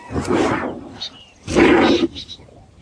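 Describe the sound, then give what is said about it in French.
A person imitates a panther's roar with their voice: two loud, rough, growling bursts separated by a short pause, with a few faint breathy sounds between them. “et la panthère se réveille.”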